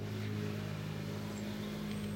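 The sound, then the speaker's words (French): A scooter engine drones steadily outside, its buzzing hum holding at an even level throughout as it passes by. No one speaks. “J'attends que le petit papier et son scooter passe.”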